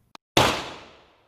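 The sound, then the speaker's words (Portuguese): A faint click, then a single loud gunshot that cracks sharply and rings out, its echo fading over about a second. No one speaks. “Eu quero ver você dar um tiro na cabeça, rapaz.”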